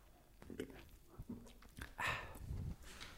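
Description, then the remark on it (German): Someone drinks beer right up against the microphone: wet, close gulps and slurps in an uneven run, with a louder hissy swallow partway through and no talking. “Schön, wie du extra das Mikrofon da dran gehalten hast an deinen Mund. Richtig ekelhaft.”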